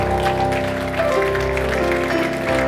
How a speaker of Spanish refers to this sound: ¿Cuántos dan gloria al nombre del Señor, hermano? Mire, déle ese aplauso fuerte al Señor